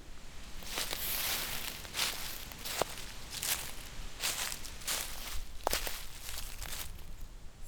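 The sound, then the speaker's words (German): Dry leaves rustle and crackle continuously, with sharp crisp snaps every second or so as if stepped on underfoot, fairly loud with no voices. “Blätter rauschen vom Rascheln und Knistern.”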